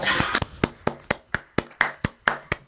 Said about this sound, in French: Bravo, on peut les applaudir quand même.